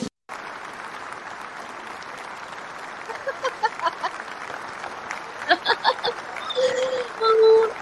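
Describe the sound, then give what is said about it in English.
Sustained applause fills the whole stretch: dense, steady clapping from many hands lasting several seconds, with a few voices and cheers rising over it toward the end. “Long clap, isn't it?”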